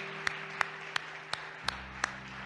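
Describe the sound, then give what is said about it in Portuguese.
A standing audience claps as applause to Christ during a church service, six sharp, even claps about a third of a second apart, over a continuous low hum with no voices. “E uma vez que estejam de pé, por que não dás um aplauso a Cristo, aquele que transforma vidas e cambia situações?”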